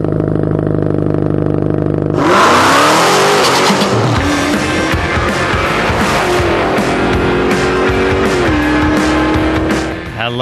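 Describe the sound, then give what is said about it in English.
A car engine idles steadily, then roars as it revs hard and accelerates, its pitch climbing in loud sweeps for several seconds before easing off at the end. “I always hear that and I put my foot on the floor like a president's wobbler.”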